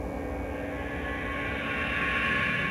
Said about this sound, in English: It's a beige carpet, a maze of cubical walls, a buzz of an invisible engine. What is that?